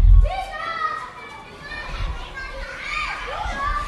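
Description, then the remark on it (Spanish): A crowd of children play outdoors just below a window, their high voices shouting and calling over one another in a steady, lively hubbub with no clear words. “Ahora, mientras tecleo el guión de lo que escuchas, no suena la música de fondo, suenan un montón de niños que están jugando justo debajo de mi ventana.”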